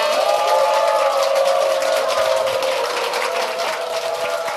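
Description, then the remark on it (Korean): A large audience applauds warmly to welcome a guest's mother, who had been seated in the audience, a dense, steady wash of clapping that stays loud and even throughout, with no voices over it. “박수로 환영해 주시기 바랍니다.”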